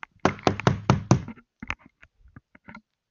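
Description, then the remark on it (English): Five loud, heavy knocks on a thin drywall wall in the United States in quick succession, followed by a few softer scattered taps and thuds, fairly forceful. “He'd do this to my fucking wall like this.”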